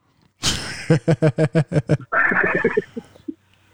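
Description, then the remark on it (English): A young boy growls loudly in the background: a breathy rush, a rapid string of about eight throaty pulses, then a longer rasping growl that trails off. No talking. “Damn, man, I just heard craziness in the background. I think my son is growling. I, I heard that growl.”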